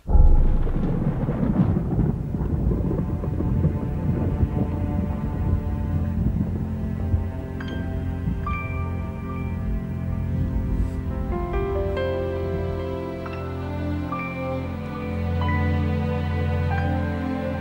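A dark, brooding film score track from the film Leon opens with a deep, rumbling low drone, then sustained tones and bright, chiming notes gradually layer in above it. No one speaks.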